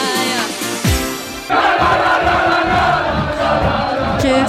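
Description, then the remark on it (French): A team sings and chants loudly together in a locker room, rowdy voices overlapping in a dense, energetic roar that swells after a brief dip and stays loud throughout. “que ça fait plaisir d'entendre mot bleu qui chante comme des foufous comme ça.”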